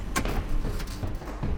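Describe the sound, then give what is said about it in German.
Keys clink and rattle at an apartment door, a few sharp metallic clicks spaced out over a low background rumble, fairly quiet, with no voices. “Schlüssel.”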